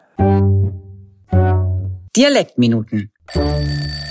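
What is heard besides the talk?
mobile phone alarm ringing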